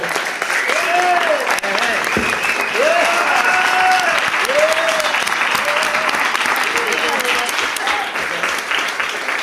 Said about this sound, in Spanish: Así que os un aplauso para, para la banda lo primero.